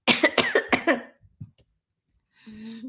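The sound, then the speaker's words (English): A loud coughing fit after sucking in extra air: four or five harsh coughs in rapid succession, then a couple of faint throat sounds and a short, steady voiced hum at the end. “So sucked in some extra air, and there you go.”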